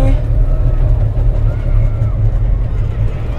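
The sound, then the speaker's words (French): Steady, loud low rumble of wind buffeting an enclosed egg-shaped cable car cabin passing over a city, a continuous roaring drone with a slight fluttering texture throughout. “Oh, le vent qui tape sur l'œuf, mais euh, oh putain ah, c'est fou, tu entends toutes les.”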